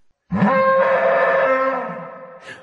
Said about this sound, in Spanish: Se lo ha llevado un equipo de chinos que ha conseguido que un caimán se ponga a emitir su especie de rugido en una sala llena de helio.